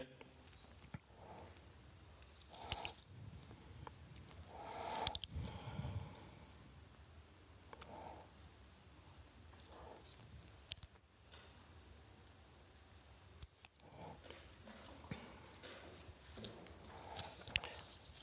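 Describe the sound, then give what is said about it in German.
Irregular rustling and shuffling of paper sheets and slides being leafed through in a search, with scattered soft crinkles and taps over a quiet background and no one talking. “muss mal jetzt kurz mal meine Folien hier durchsuchen, zu viel Papier.”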